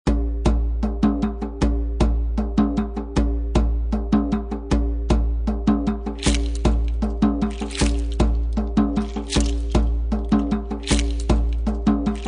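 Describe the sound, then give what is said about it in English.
A recorded song plays loudly: a steady, driving beat with regular percussive hits over sustained bass and harmony, purely instrumental with no singing in this stretch. “Now let's dive into another song.”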